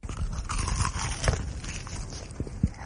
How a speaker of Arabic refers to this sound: وأحلى من هذا وهذاك قرمشة تشيكن فيليه من هيرفي